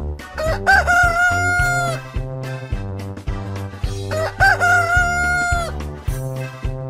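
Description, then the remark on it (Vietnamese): A rooster crows twice, a few seconds apart, each a loud drawn-out call laid over bouncy, steady background music with a thumping beat. “có bạn nào tìm ra được đáp án chưa à đó chính là con gà trống đấy các em ạ à.”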